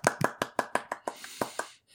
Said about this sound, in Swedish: Förtjänar en applåd.